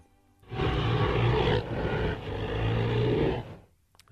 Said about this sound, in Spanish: Pues Spybar fue el encargado de crear esos efectos de sonido de King Kong, ¿no? Y vamos a y traigo una serie de efectos. Vamos a escuchar uno. Uno. ¿Te parece? Vamos a escuchar simplemente los rugidos de King Kong.